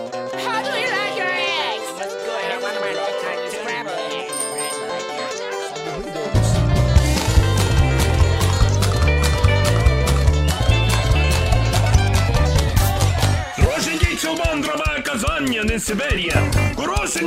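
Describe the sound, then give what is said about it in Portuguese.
A country-style song from 1997 opens with a lighter, galloping clip-clop rhythm, then bass and drums crash in for a loud, full-band groove, with a brief stop before the beat resumes. “É uma espécie de um country.”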